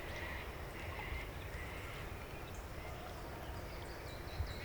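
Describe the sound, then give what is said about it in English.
Faint duck quacks from a mother duck and her ducklings on a lake rise now and then over a steady outdoor hum of wind and water, with no one speaking. “Oh, the ducks!”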